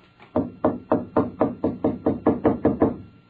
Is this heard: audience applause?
no